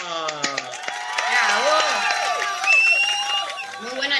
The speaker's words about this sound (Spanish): Bueno, muy bueno el eh, desafío, ¡Aplausos!